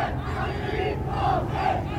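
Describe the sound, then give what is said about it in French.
A vehement crowd on the open ground in front of the prefecture of Orléansville, Algeria, shouts slogans at General de Gaulle on his arrival on 10 December 1960, a loud, continuous roar of many voices with two chanted surges rising out of the din near the end. “Une foule véhémente, hurlante, vous l'entendez, est là sur le terre-plein devant la préfecture pour crier des slogans”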